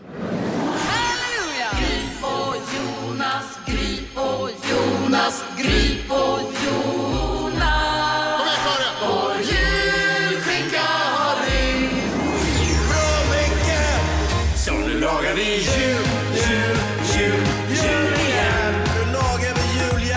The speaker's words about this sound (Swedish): Jullåtsbattlet ska avgöras nu. Vi har alltså gjort, vi, du får 100% julmusik på Mix Megapol och då har vi gjort egna jullåtar också. För dig som eventuellt har missat dem, så här låter bidragen i år.